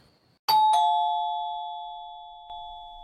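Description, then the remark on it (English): A two-tone doorbell chimes once, its bright ding-dong ringing out and slowly fading over a few seconds, with a soft click near the end. “one week has passed by the doorbell rang”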